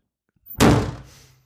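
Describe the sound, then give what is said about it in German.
A door swings shut with a single solid thunk, preceded by a faint rustle of handling, then a short fading resonance. Fairly loud, with no talking. “Ich mach die Tür mal gerade zu, ja?”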